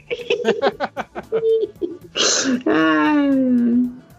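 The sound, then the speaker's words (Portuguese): A single loud sneeze bursts out after a few seconds of short rhythmic vocal huffs, then trails into a drawn-out, falling voiced sigh. “saúde pra queira.”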